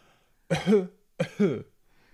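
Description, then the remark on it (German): Two short, deliberate coughs, used instead of clearing the throat, each a sharp burst trailing into a voiced rasp, separated by a brief pause, with quiet before and after and no talking. “Nee, genau, Husten ist besser. Ja. Statt zu räuspern, jetzt erzähle ich wahrscheinlich wieder das genau falsch rum, aber statt zu räuspern, soll man, glaube ich,”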